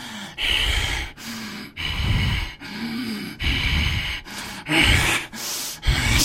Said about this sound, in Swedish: Men du väcks av att det verkar vara ett krafsande ljud utanför i korridoren som någon drar sina naglar längs en dörr.